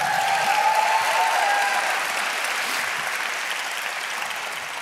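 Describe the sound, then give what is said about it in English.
An audience at Journey Church claps their hands for the Lord in a dense, sustained round of applause, steady and fairly loud before easing slightly toward the end, with no talking over it. “If you believe that, give the Lord a hand clap in this place.”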